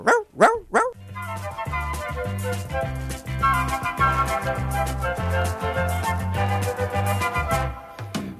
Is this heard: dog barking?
yes